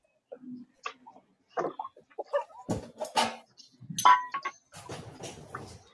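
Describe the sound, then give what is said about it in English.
Plates and dishes are loaded into a dishwasher, clinking and clattering in a quick, irregular series of sharp knocks and ringing dings, fairly loud, with brief pauses between bursts. “I'm putting them in the dishwasher.”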